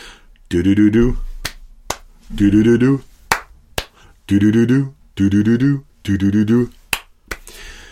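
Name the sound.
finger snapping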